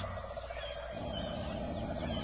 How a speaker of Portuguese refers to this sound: Quem canta aqui é a galinha.